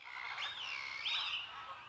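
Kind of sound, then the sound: bird, birds chirping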